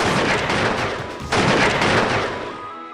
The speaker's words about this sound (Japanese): 夫人は憎悪のパッションに逆上しながら自暴自棄になって拳銃を乱発した